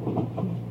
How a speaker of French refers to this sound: C'est le moteur du train. C'est le moteur du ah, train, En direction de Besançon.